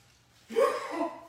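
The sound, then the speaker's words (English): A single sharp sneeze bursts out after a moment of near silence, moderately loud, with a breathy tail trailing off over the following second. “Bless you.”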